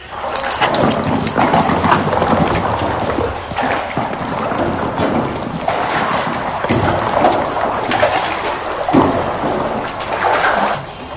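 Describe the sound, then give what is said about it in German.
A loud, sustained rockfall rumble echoes through a cave as a boulder breaks loose and falls, with heavy crashing surges over a constant rattle of debris trickling from the cave ceiling, and no voices. “Das hörte sich an wie ein Steinschlag.”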